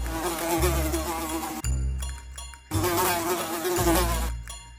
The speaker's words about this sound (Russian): По комнате летала муха. Обычная вроде бы муха, только крупная и какая-то сероватая.